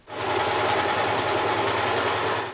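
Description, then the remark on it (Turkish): A sewing machine runs steadily in Samsun as healthcare workers sew their own face shields after work, its fast mechanical whirring and rattling holding an even loudness throughout, with no voices. “Samsun'da ise sağlık çalışanları mesaiden sonra kendi siperliklerini kendileri üretmek için dikiş makinesinin başına geçiyor.”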